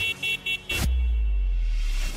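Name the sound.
car horn honking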